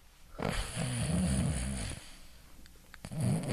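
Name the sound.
person imitating snoring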